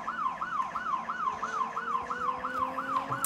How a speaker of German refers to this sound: Ich mache auch die Sirene mal aus, den nervt.